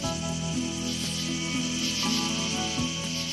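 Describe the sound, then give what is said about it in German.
A grasshopper stridulates in a steady, dry, raspy buzz, fairly loud, with faint repeating pulses about every half second and no voices. “Es ist die Heuschrecke.”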